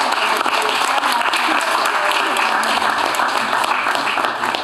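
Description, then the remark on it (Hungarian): Steady, dense audience applause for the art teacher at an exhibition, many hands clapping at once in a continuous, even roar without pauses. “és kiállítás nem jöhetne létre, kedves rajztanárnőnk nélkül, úgyhogy egy nagy tapsot Igen. kérek.”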